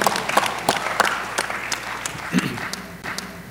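Audience applause fills the room, a dense patter of many hands clapping at a steady level, with a few sharper claps standing out and a faint vocal sound partway through.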